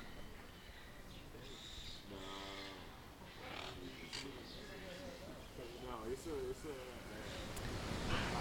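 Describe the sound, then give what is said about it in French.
The Iguazu Falls in Iguaçu National Park, on the Brazilian side, surrounded by jungle, roar steadily and continuously in the background, a dense rushing wash of water, while voices talk over it. “Donc en fond, vous pouvez entendre le bruit des chutes d'Iguasso, donc des cascades, dans le parc national d'Iguaçu, du côté brésilien.”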